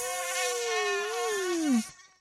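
A loud mosquito whine holds a thin, buzzing tone, then slides steadily lower in pitch and cuts off after about two seconds, with no voices.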